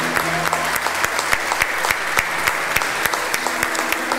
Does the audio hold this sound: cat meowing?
no